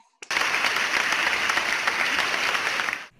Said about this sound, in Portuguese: Palmas para ele.